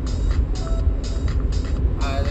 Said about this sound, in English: Uh, there's a, a shit ton of trucks on this section of the 401. I mean, there's always a lot of trucks on the 401, but this seems like even more today